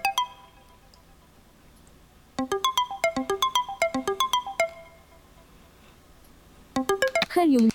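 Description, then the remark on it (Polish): A mobile phone alarm tone preview plays in short bursts of bright, bell-like electronic notes in a quick repeating melody while alarm tones are browsed and selected on the phone. It pauses, then starts again briefly before a voice cuts in at the end. “To są dźwięki alarmów.”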